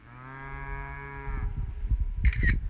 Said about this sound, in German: Hey, ich gehe zur Kuh hin. Ich werde euch ein bisschen einen Sound bringen von dieser Kuh. Ich bin gerade auf so einer Weide und genau, hier sind Kuhfladen und Gras und eine Telefonleitung, fünf Kühe und ich.